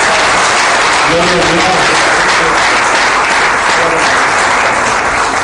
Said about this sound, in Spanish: Un aplauso a ese Dios tan bueno. Amén.